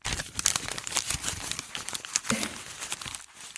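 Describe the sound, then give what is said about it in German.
Paper script pages being crumpled and crinkled, a continuous dense rustling with sharp bright crackles throughout, with no voices. “Das sind die Drehbuchseiten.”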